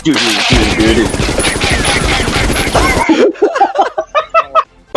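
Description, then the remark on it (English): A man pointing his fingers and pretending his hand is a gun makes a loud, rapid stream of mouth-made machine-gun noises for a few seconds, then breaks off into short voiced sounds, like laughter or chatter. “He, he's pretending his hand is a gun! bang,”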